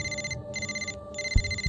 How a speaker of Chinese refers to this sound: 一阵手机的铃声打断了沉默。池卫峰说了声抱歉后，走到阳台上去接听。